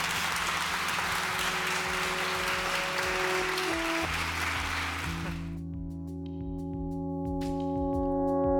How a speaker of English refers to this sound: So I think I've come to the end of my time. I have. I'd like to open the floor to questions, or is that not my role? Is that yours? Yes, oh. yes, yes, applause.